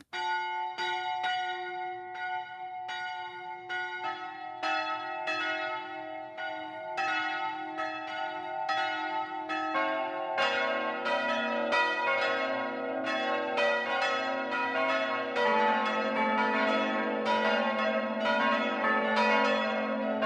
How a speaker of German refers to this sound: Es ist zwölf Uhr. Das Mittagsläuten kommt heute von der evangelischen Lutherkirche im oberpfälzischen Neutraubling.